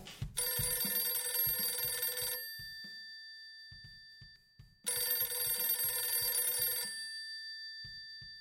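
A telephone ringback tone on an outgoing call placed to ask people what they know about TNT, sounding twice, each long ring lasting about two seconds with a pause between, clear and fairly loud, with faint low thumps underneath.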